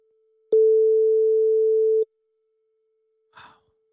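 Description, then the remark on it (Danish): A single steady telephone line tone rings out for about a second and a half during an outgoing phone call, clean and loud, followed by silence and then a brief soft rustling click. “Hvis der er nogen, der tager den her, så vil jeg blive meget overrasket.”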